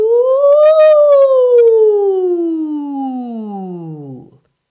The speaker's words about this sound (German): Wir bleiben nochmal bei den Glissandi, die wir auch bewusst über den ganzen Stimmumfang ausführen. Diesmal gezielt von unten nach oben oder von oben nach unten. Das klingt so.